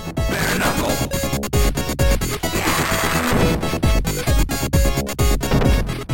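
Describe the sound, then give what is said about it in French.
Loud, dense, chaotic electronic video game music with pounding low beats, harsh noisy synth textures and a frantic, cluttered rhythm that never lets up, with no voices. “On croirait entendre un chat épileptique courir avec grande difficulté sur un clavier bon tant acheté par pitié lors d'une soirée Emmaüs”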